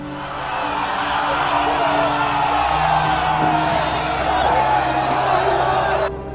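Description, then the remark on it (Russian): A large, agitated crowd roars in the street during an uprising, many overlapping voices shouting and whooping in a dense, continuous din that holds steady for several seconds, then cuts off abruptly. “С улицы доносился шум. Монах подошел к окну, и причина шума быстро прояснилась. Началось восстание.”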